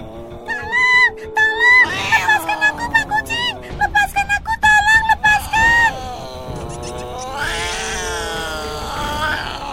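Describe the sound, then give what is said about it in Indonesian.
A voice imitates a mouse screaming frantically for help after a cat grabs it with both paws: rapid, high-pitched squeals in quick bursts, then a longer wavering wail, loud. “Tikus menjerit-jerit minta tolong.”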